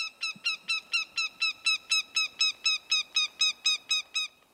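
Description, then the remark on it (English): A northern goshawk perched at the edge of a forest clearing gives a loud, rapid cackling series, about fifteen harsh, evenly spaced nasal calls delivered at a steady pace, clear with no other sounds. “It's a northern goshawk, one of the most fearsome and admired of all birds of prey.”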